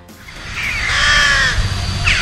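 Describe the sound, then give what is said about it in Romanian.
Crows caw harshly and loudly, a drawn-out raspy call lasting about a second followed by another short caw near the end, with no one talking. “Măi, pescăruși nu par. Nu sunt, nu sunt. Sunt pescăruși din contră. Cum zicea bunica mea, cer zăpadă.”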